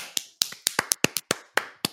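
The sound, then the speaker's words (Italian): Brief, sparse applause for Marco Costanza: about a dozen sharp, crisp handclaps in an uneven rhythm, fairly quiet and with no voices over them. “Un applauso a Marco Costanza.”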